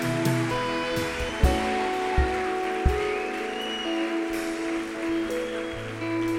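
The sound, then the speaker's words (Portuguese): A church audience applauds Jesus at a night service in a steady, dense roar of clapping that lasts the whole stretch, with sustained keyboard tones and a few heavy thumps underneath. No one speaks. “E eu quero saber cadê os homens para dar um glória a Deus mais alto aqui nessa noite, para aplaudir aplaudir a Jesus com toda a força.”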